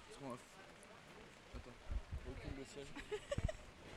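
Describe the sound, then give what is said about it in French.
Heavy rain patters steadily on a hard outdoor terrace, a dense hiss with droplet taps, while brief voices murmur. “Il nous pleut vraiment beaucoup dessus.”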